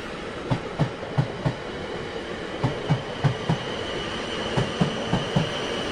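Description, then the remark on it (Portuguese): A train rolls steadily along the rails, its wheels clacking over track joints in repeated groups of four, over a continuous rumbling hum with a faint high-pitched whine. “A primeira parada da nossa viagem será de trem”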